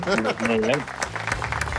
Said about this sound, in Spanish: ¿Quieres un aplauso? Bueno, venga, va. Gracias.